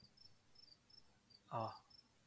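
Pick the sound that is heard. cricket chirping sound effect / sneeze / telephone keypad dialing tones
cricket chirping sound effect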